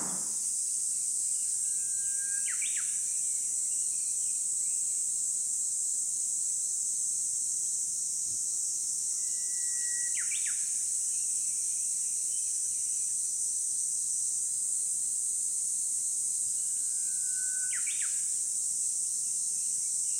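Three brief, thin chirps from small birds ring out at wide, even intervals over a steady, high-pitched insect drone that fills the background throughout. No one speaks.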